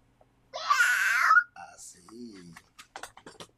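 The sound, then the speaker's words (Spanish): A child's voice gives one loud, drawn-out meow, a wailing cat imitation lasting about a second, followed by soft, brief babbling sounds. “¿Y el gato?”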